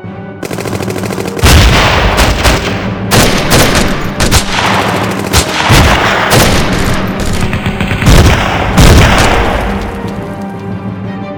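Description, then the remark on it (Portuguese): Dense battle gunfire from a heavy offensive by Siberian troops against German troops crackles continuously, with rapid machine-gun bursts and heavy booming blasts of artillery layered throughout, loud, with no voices. “mas não demorou para que as tropas alemãs fossem surpreendidas com uma pesada ofensiva das tropas siberianas que lançaram um ataque total”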